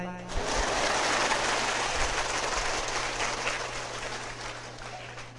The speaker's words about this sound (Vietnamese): Vậy em không chịu vỗ tay